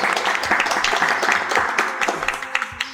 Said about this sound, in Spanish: Un aplauso, Un aplauso para ellos.